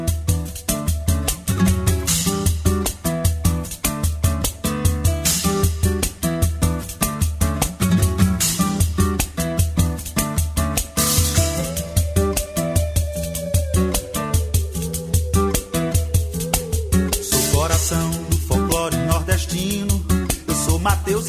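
An upbeat Brazilian pop song plays loud and full, with a male voice singing over driving, steady percussion and dense instrumentation throughout.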